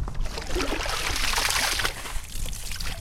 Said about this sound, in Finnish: Ja sitten tässä niin kun mä oon viskunut tätä vettä tänne, eli tosiaan niin niillä jääsukeltajilla niin sinne tehdään aina semmonen jäädytetty tai semmonen niin kuin ympyrä siihen ympärille. Niin mä olin jäädyttänyt tähän semmoisen niin jäisen kentän